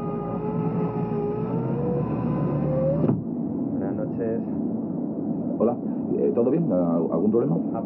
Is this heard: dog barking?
no